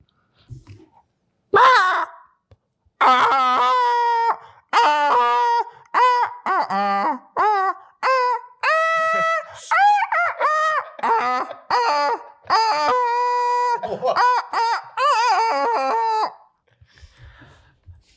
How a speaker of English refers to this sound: 또 하나는 the plastic chicken doll. You know the yellow yellow chicken. Oh yeah, yeah, the gag doll.